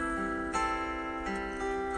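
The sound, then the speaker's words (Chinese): A clock ticks a couple of times at an even, unhurried pace, the sharp clicks standing out over a steady, sustained musical tone that holds throughout. “滴答滴答”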